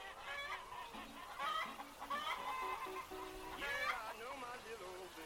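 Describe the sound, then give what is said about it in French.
Several chickens cluck and squawk at once in a busy, overlapping chorus, their short harmonic calls rising and falling steadily for the whole stretch at a fairly loud level. “Bon, deux Rhode Island pour moi, ok, j'en veux deux.”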